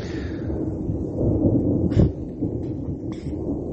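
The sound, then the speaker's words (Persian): Deep, rolling thunder rumbles continuously through a storm, swelling into a louder boom near the middle, with a faint rain-like hiss above the low roar and no voices. “صدا رد و برق از صدای من بیشتر شد”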